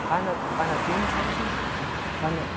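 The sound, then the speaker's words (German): Steady roadside traffic noise, a continuous wash of car engines and tire rumble at a fairly even level, with faint voices murmuring underneath. “Du sitzt schon seit heute Morgen hier an der Straße.”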